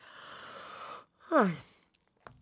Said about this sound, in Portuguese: Vou bocejar.